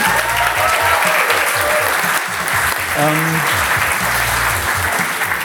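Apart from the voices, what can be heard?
audience applause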